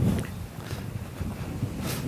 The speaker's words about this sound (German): Wind, Aber ordentlicher Wind.